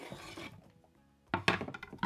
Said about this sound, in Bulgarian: И също нарязвам на купчета. И отново прибавям в тенджерата.